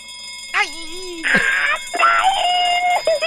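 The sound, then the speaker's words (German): A bell rings with steady, high, sustained tones throughout during a game in a studio, while voices wail and exclaim loudly over it in rising and falling cries. “Die Glocke!”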